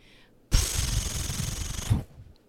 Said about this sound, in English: Let's uh, give this a ceremonious page turn noise so we can get to the title page to read our creative team.